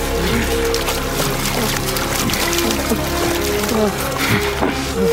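Continuous sloshing and splashing of water as young men wade through a shallow hollow filled with water, steady, over a low droning background with faint murmuring tones.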